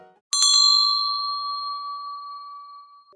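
A telephone rings with a bright bell tone, like an old telephone bell: it starts with a quick rattling trill, then hangs as a clear sustained ring that slowly fades. It is loud, with no voices.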